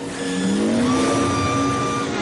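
A high, whining speeder bike engine roars steadily, its pitch rising as if accelerating past at speed, loud, with no talking, as riders pull alongside and ram another speeder bike.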